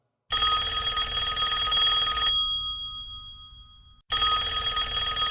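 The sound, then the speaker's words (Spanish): A loud telephone bell rings in two bursts: a long metallic ring that fades out, a short pause, then the ringing starts again. No one speaks. “Teléfono.”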